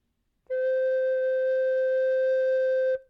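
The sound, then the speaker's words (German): A single flute note played with piano fingering, held steady at one mid-high pitch for about two and a half seconds, with an even, breathy-clean tone and a crisp start and stop. “Ich könnte es noch einmal sozusagen gegenüberstellen, den Hauptgriff und den Pianogriff.”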